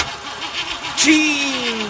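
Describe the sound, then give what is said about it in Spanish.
A car engine cranks with a rapid, rhythmic whirring for about a second, then catches and settles into a steady, humming idle. “¿Otra vez tarde por culpa de tu vehículo?”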